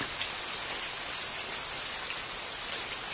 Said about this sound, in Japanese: 雨かどうりで寒いと思った